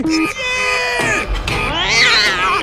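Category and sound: animal, cat meowing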